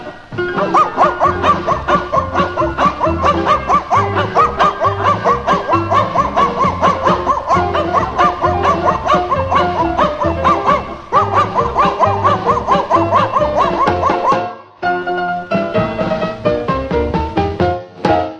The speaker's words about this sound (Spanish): que cuando salía a pelear los perritos del lugar se ponían a ladrar.